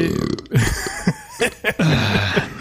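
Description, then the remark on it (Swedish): A loud, drawn-out burp rumbles, broken into a few low, gurgling pulses over about two seconds, with no talking around it. “jag käkade pizza förut, ursäkta mig.”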